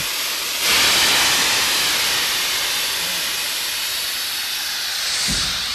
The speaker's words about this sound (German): Hören Sie das Zischen austretender Luft? Zischen, zudrehen! Schieben zu!